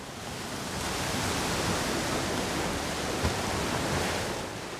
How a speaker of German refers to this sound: Es folgt das Tonbeispiel Meeresrauschen, Brandung.